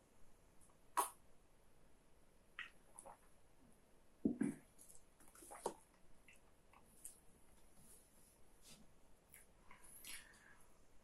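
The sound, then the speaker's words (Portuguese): Someone pauses to drink a glass of water: a few soft gulps and light clicks against an otherwise quiet background, with a small clatter near the middle and no talking. “Pega o bloquinho de notas aí para notar enquanto eu tomo uma água.”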